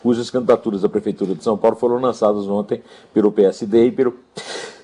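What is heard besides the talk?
sneeze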